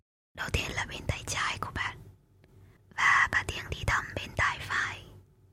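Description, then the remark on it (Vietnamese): Soft, breathy ASMR whispering right by the ear, in two short bursts with a brief pause between them, airy and hissy with no voiced tone. “Hoặc là tiếng thì thầm rất nhẹ ở bên tai.”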